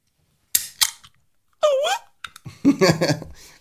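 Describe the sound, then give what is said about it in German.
A Hello Kitty drink being opened: two sharp clicks, then a brief squeaky warbling tone and a louder burst of hissing, rustling noise. “Jetzt machen wir die Hello Kitty auf.”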